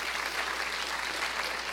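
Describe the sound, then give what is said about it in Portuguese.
Steady applause from an audience, a dense, even patter of many hands clapping at once, sustained at a moderate level throughout with no voices rising above it. “Olhe, você estava falando, pode aplaudir, queridos.”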